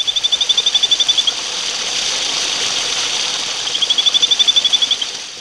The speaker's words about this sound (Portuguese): Então é um bicho que também confunde muitas pessoas que estão aí pelo mato. Vamos ouvir então para ver como realmente é semelhante o som da ranzinha de corredeira com o canto de um passarinho.